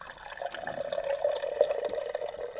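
A water cooler gurgles steadily for a few seconds, a continuous bubbling, glugging flow of water that stays fairly even in loudness, with no voices.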